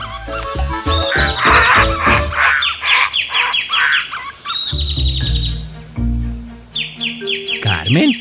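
Birds chirp and tweet continuously in a lively, overlapping morning chorus, with bright high-pitched trills and a few harsher squawks mixed in, fairly loud and with no talking. The birdsong acts as a morning wake-up alarm.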